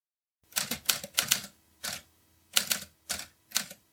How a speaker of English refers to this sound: What is that sound? It almost sounds like a typewriter? It's getting louder as the light grows brighter.